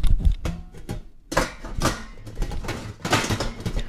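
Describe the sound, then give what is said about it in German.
Water boiling hard in the lower pot of a steam juicer used for juicing raspberries, with irregular bubbling pops and gurgles over a rushing hiss that grows fuller and denser after a brief quieter moment. No one speaks. “Und Sie hören es schon, das Wasser brodelt im unteren Topf und wenn das Wasser kocht, dann kann ich den mittleren Topf draufsetzen und das Sieb.”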